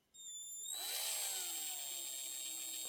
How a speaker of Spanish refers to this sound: como handyman que soy, como somos nosotros, aquí cada vez que grabo yo el podcast, tengo aquí yo mi, taladro. Aquí siempre lo tengo. Te lo voy a demostrar eh, la potencia que tiene. Este, tiene velocidad lenta.